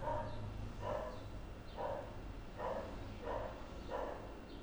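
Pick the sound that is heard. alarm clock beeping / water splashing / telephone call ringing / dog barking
dog barking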